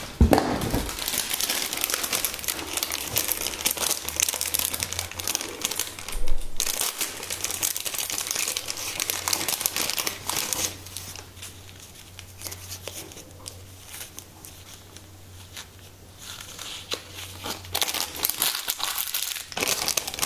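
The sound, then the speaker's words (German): Crinkling of two coffee packs being fetched and handled, a busy rustle of packaging that carries on for about twenty seconds with a low steady hum underneath and no talking. “Gut, dann werde ich mal meine Packs holen. Kaffeepacks, zwei Stück.”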